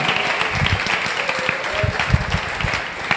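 A crowd bursts into steady applause for someone's birthday, dense overlapping claps filling the whole stretch at an even, fairly loud level, with a few voices faintly mixed in.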